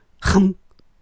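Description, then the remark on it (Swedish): A voice makes one short, dull, throaty burst, fairly loud, imitating the sound of biting into a dense mazarin pastry, then falls quiet. “det låter så här när du biter in i den.”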